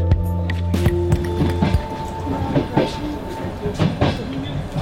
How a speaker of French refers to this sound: Nous sommes en Ukraine, dans le train médicalisé affrété par MSF pour évacuer les blessés depuis les régions proches de la ligne de front dans l'est du pays, vers les villes plus sûres de l'ouest, un millier de kilomètres plus loin.